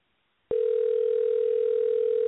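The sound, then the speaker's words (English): A steady telephone dial tone, heard while calling back a caller whose call dropped during a live broadcast, starts abruptly after a brief silence and holds at an even, loud pitch without interruption. No one speaks. “Okay, so uh, let's get her back in here. Call her one more time.”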